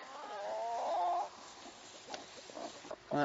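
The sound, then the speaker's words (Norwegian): A broody hen tending pheasant chicks makes a long, drawn-out clucking call, followed by a few softer clucks and faint chirping bits, with the farmyard otherwise quiet. “Nå som de hønene går der med fasankyllinger, så må en inn her og så se til, til de.”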